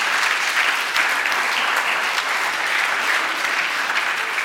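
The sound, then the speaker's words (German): Steady, dense applause from an audience fills the whole stretch, loud, a continuous crackle of many hands clapping without pause or voices. “Lass uns mal einen dicken Applaus geben.”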